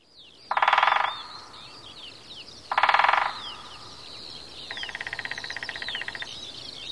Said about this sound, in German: Wenn doch das Leben immer so schön wäre, wie die Vögel hier singen. Ich bin in Mörsdorf, in der Lausitz, im Sächsischen, einem kleinen Ort mit circa 300 Seelen.